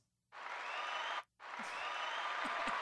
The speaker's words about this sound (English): give yourselves a round of applause.